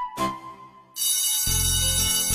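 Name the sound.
school bell ringing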